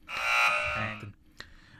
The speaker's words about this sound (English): I think it's a big red X for me. Put put a buzzer sign in there or something